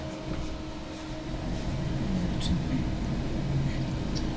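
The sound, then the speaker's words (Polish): A clothes dryer running at its highest setting, giving off a steady, loud, low rumbling hum with a faint whine on top, continuous from start to finish. “I to jest w zasadzie maksymalna głośność, ale dobrze pamiętam Teraz tej suszarki.”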